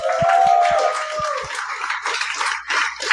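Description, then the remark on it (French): An audience applauds to welcome Mathieu Graton and Steve Diamond onto the show, a dense, steady wash of clapping that lasts about three seconds, opening with a held tone and a few low, evenly spaced thumps. “Mesdames et messieurs, voici Mathieu Graton et Steve Diamond. Applaudissez-les.”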